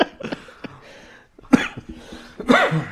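Two or three harsh coughs burst out in quick succession, with a brief pause between them and some rough throaty noise before, and no one speaking.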